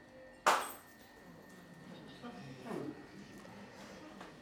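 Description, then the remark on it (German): A single sharp clink of glasses knocking together, its bright ring fading within a fraction of a second, followed by faint, low murmuring voices. “Ich glaube, wir müssen mal die Gläser hier im Raum verbieten.”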